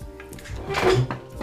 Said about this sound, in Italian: No, aspetta che prendo una sedia e dico due cose anch'io.